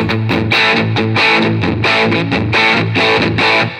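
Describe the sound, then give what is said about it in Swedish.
A loud distorted guitar tone chugs through rhythmic repeated chords while a low-cut filter is swept from maximum to minimum across it, thinning and reshaping the bass. No voices. “rör från, eh, när du spelar då på low-cutten från max till min helt enkelt.”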